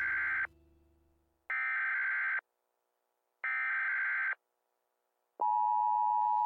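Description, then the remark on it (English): Three harsh, buzzy electronic data bursts separated by short silences, followed by the start of a steady, loud alert tone, like an emergency broadcast test signal. No voices. “This is a test of the emergency podcasting system.”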